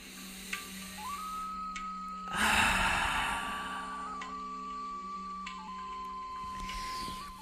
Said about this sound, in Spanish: Toma una última respiración profunda y exhala fuertemente así.